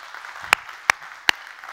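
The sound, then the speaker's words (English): A person claps in agreement: three sharp, crisp hand claps in a slow, fairly even rhythm over a faint, steady background hiss, with no talking. “I will clap to that.”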